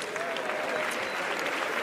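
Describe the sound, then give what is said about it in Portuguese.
Steady audience applause fills the whole stretch, a dense, even patter of many hands clapping at a fairly constant level with no pauses. “Podem aplaudir outra vez se quiserem, obrigado.”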